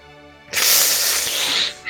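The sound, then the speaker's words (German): A loud snake hiss starts abruptly after a brief quiet moment and holds steady for over a second before trailing off, with no talking over it. “Also er konnte nicht wirklich viel so als Druide, aber das Einzige, was er konnte, war sich in eine Schlange zu verwandeln.”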